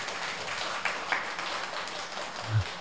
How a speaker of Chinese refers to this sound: 那我们把掌声给到我们现场的李松伟老师，欢迎他。